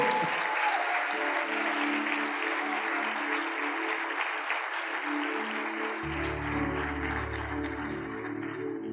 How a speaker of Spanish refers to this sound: Fuerte, fuerte aplauso.